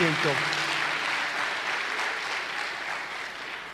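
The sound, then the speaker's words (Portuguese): An audience applauds for the pastors with steady, dense clapping that holds fairly even for several seconds. A brief voice is audible at the start, under the clapping. “Um aplauso aos nossos pastores.”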